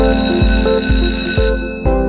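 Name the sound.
school bell ringing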